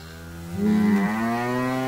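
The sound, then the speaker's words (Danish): A cow gives one long, drawn-out moo that swells louder partway through and shifts pitch before trailing on, and no one speaks. “Hey, øh, jeg vil gerne købe den der ko der.”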